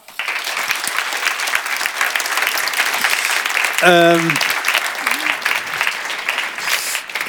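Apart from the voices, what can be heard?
warm audience applause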